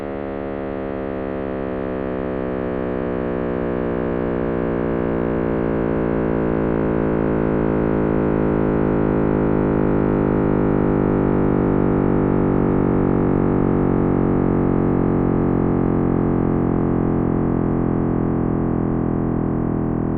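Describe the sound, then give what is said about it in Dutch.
A steady synthetic drone with many harmonics slowly sweeps downward over twenty seconds, a deepening electronic roar: a sonification of the Big Bang, the beginning of the universe, heard alone with no talking. “We gaan gewoon luisteren naar het begin van het universum, hoe dat klonk.”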